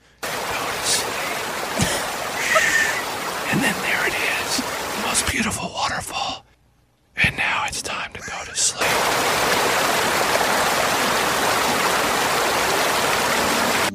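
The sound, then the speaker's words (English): Rushing waterfall noise, a dense steady hiss with a few scattered sounds on top, cuts out briefly, then returns as a louder, unbroken roar of falling water. “I got three left ear waterfalls and one right.”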